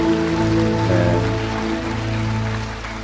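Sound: audience applause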